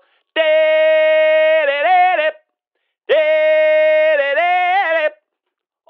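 A short arena-style jingle: a loud, brassy sustained synth note that wavers into a brief melodic turn at the end, played twice with a pause between, no voices.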